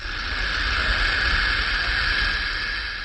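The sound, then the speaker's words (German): A burrowing owl, sheltered in its tunnel, makes a steady, dry buzzing hiss with its bill that imitates a rattlesnake's rattle. It holds continuously for about three seconds at an even loudness, with no voices. “Um sie zu verjagen, gibt die Eule im Schutz des Tunnels vor, sie sei eine Klapperschlange.”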